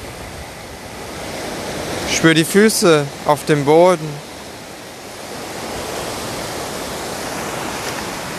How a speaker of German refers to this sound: Lausch den Wellen.